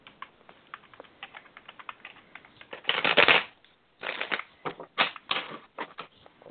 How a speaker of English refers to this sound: Now, I'm going to shuffle my cards and pull some.